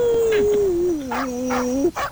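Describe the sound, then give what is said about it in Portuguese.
A person imitates a dog howling: one long, loud howl that slides gradually downward in pitch, wavers, and ends with a brief upward yelp. “Eu falaria, eu falaria pra ela assim, ó, hum. na linguagem do cachorro.”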